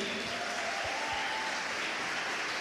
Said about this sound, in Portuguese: Fica de pé, vamos honrá-los aí. Eu não faço isso, mas deu vontade, então vamos aplaudir eles aí, gente.